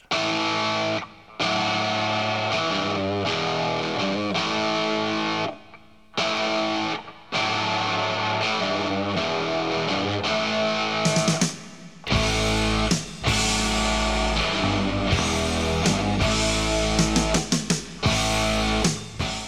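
A loud hard rock track with heavily distorted electric guitar riffs, pounding drums and bass, playing continuously with brief stop-start breaks, then driving harder in the second half.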